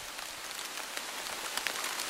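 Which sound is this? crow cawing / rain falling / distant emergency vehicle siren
rain falling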